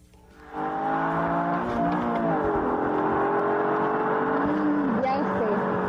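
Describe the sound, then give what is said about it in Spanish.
The engine of a Nissan Micra, a small Japanese car, starts up abruptly and holds a loud, buzzing drone, its pitch rising and dipping as the engine is revved over several seconds. “Es un coche pequeñito de origen japonés y tiene su origen en la deportividad de esa marca japonesa”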